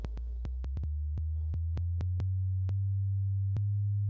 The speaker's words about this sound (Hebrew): זה כבר 100 הרץ. 100 הרץ זה אה, אזור שאפילו הגיטרה בס כבר מנגנת עליו, אה, ומה שנקרא בעולם ההפקה המוזיקלית זה אזור הסאב בייס.